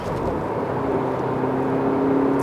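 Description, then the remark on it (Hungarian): A car engine drones steadily with a low, tonal hum, growing slightly louder toward the end as it revs beneath the occupants while driving without shifting gears. No one speaks over the continuous, rumbling motor. “hogy ez mennyire hallatszódik, ahogy felbőgít a motor alattunk de durva, hogy nem kell váltani egyébként.”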